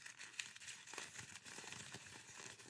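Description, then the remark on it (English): A clean sheet of paper is wadded up, a continuous crackly rustle of crinkling with sharp little snaps, lasting a few seconds with no talking. “And then we take this wonderful clean piece of paper and we wad it all up and make it a mess.”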